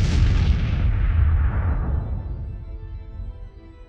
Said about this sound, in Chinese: 飞船与地面发生接触的一刹那，没有悬念，发生了。巨大的爆炸，火光吞噬了一切。